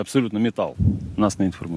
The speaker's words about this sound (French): une seule sortie, un seul obus tiré, contre les 6 en une minute